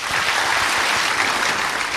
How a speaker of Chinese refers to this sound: Great，大家真棒！小朋友们都做到了，对不对？我们为自己的努力拍手，clap。